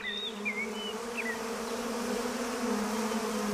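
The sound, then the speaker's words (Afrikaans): A steady, droning buzz of many angry bees swarming, with a few higher chirps flitting over the top; no voices, just the continuous agitated hum throughout. “Vanuit sy wegkruipplek daar naby, lek haar sy vingers af terwyl hy toe kyk hoe die woedende bye om die slapende leeu se kop zoom en vlieg.”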